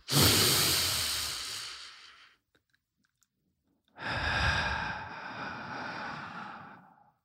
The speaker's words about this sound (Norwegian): Så eh, er det en som heter Eckhart Tolle, som sa at meditasjon i sin essens er ett bevisst pust. Mm. Så hvis du har tid til å trekke pusten